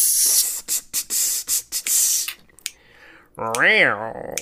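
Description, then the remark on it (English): A voice imitates four or five cats on a pier next to a boat hissing, with a run of sharp, airy bursts, then a brief rising-and-falling vocal whine. The hisses are loud, coming in rapid uneven spurts. “Standing on the pier next to the cat boat are a bunch of cats. And they're all, they've all been watching you going”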